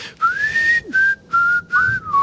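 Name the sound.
person whistling a tune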